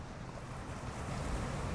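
A steady, rumbling wash of sea waves against a breakwater, broad and continuous with a gusty wind-like hiss, even in loudness throughout, with no voices.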